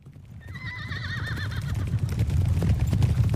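A horse lets out a clear, quavering whinny lasting about a second, over a steady low rumble that could be hooves or movement, which grows slightly louder afterward. No one speaks.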